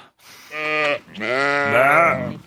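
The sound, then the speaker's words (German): Two loud sheep bleats in quick succession, each a wavering, nasal cry, the second longer and shakier than the first, with no talking; sheep in Germany during a heatwave, on land with no green grass for almost two months. “Seitdem haben die Schafe kein frisches Grün mehr gesehen und gefressen.”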